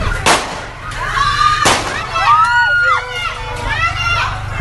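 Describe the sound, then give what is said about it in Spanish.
Two loud, sharp gunshots crack about a second apart, echoing, in a night shootout between police and criminals who had just stolen a Toyota pickup truck, outside the emergency department of the Clínica de Occidente in the Kennedy locality, followed by raised, excited voices calling out over steady background noise. “Balacera entre policías y delincuentes que se acababan de robar una camioneta Toyota.”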